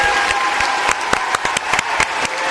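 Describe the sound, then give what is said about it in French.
A studio audience applauds steadily, a dense wash of many hands clapping at once with a few sharper individual claps standing out, sustained and loud throughout. “On veut des applaudissements mérités. Plus fort.”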